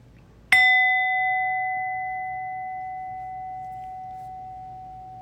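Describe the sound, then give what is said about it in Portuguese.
A single meditation bell is struck once to end a formal meditation practice period, ringing out clearly with a bright attack and a long, pure sustained tone that slowly fades over several seconds in otherwise quiet surroundings. “Então, daqui a pouquinho eu vou convidar o sino a soar mais uma vez para a gente terminar o período formal de prática, mas procura não se mexer instantaneamente na hora que o sino tocar.”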